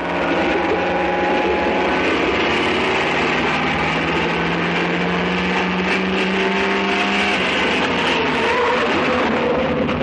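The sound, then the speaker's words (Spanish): Engines of cars, one of them a police car, roar loudly and steadily throughout as the cars approach an airstrip, their humming tones sliding in pitch as they draw near, with a sudden shift in the engine note toward the end and no voices. “Los coches de Johnny y Obregón se acercan a la pista.”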